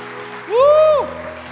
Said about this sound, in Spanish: Así que dan un aplauso a Jesús por eso, iglesia.